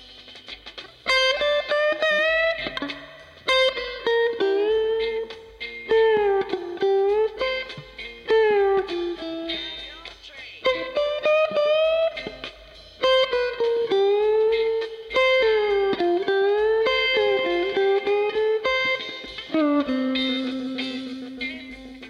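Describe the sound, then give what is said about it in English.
A sustained overdubbed lead guitar solo for the middle of a song, with bending, sliding notes and repeated phrases, played loud and up front, with a smooth studio echo-chamber reverb tail washing behind it and no other instruments. “also overdubbed a guitar, a solo for the middle of the song. It has a little bit of reverb added, which is a nice smooth sound, not like the amplifier, but more like the studio reverb, which is an echo chamber they had at the time.”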